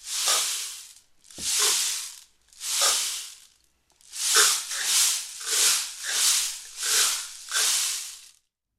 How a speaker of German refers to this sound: Ein Lied auf dem Regenmacher. Aha. Ich weiß jetzt gar nicht, welches Lied da Finny gemeint haben könnte, aber den Rhythmus, den könnt ihr doch bestimmt nachklatschen.